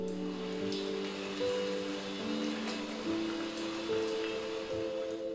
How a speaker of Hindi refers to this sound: जरा सुनिए धुन बारिश की बूंदों की अलग अलग सतहों पर स्टील पर